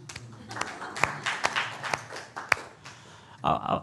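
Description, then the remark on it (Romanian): Thin, scattered applause from the part of an audience who have preteen or teenage children: a handful of separate claps spread out over a few seconds, with faint murmuring at the end. “Câți aveți copii? Hai să aplaudăm.”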